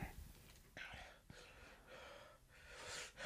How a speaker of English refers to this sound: I'm getting lightheaded. Yeah. From breathing hard.